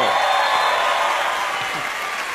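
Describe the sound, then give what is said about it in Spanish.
Steady audience applause, a dense wash of many hands clapping at an even, fairly loud level throughout, fading only slightly toward the end, with a faint murmur of voices underneath. “Ah, no, no. el aplauso.”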